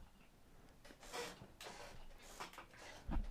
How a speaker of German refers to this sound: Und das, was ihr so im Hintergrund immer knatschen hört, das sind meine abgefuckten Oldschool-Stühle. Oldschool-Stühle.